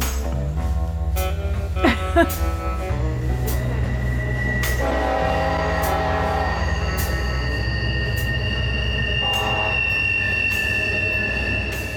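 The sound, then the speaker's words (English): A train rumbles past in the town of Kermit, West Virginia, wheels clacking rhythmically over the rails, while a loud, sustained horn blares in long tones and metal squeals rise above the steady roar. “There's your train coming.”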